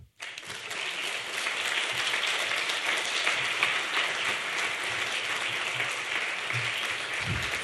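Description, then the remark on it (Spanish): A concert crowd bursts into sustained applause welcoming a jazz group and a guest musician, a dense, steady wash of many hands clapping that holds at full strength for several seconds, with no voices standing out. “Por favor, recibamos con un fuerte aplauso a … y a ….”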